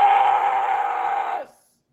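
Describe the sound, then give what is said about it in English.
A girl in a Burger King video lets out a single loud, sustained, forceful, manly-sounding yell, holding steady for about a second and a half before breaking off abruptly into silence. “Can can we talk for a second about how manly that girl's yell was?”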